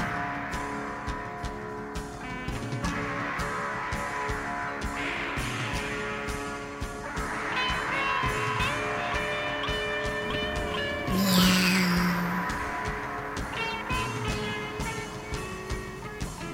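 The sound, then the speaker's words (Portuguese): A cover version of the children's song "Atirei o Pau no Gato" plays steadily at moderate volume, with dense layered instruments and sustained tones, a brief sweeping high-pitched glide rising out of the mix partway through. “Vamos agora à sua polêmica versão de Atirei o Pau no Gato, que já estamos ouvindo de fundo.”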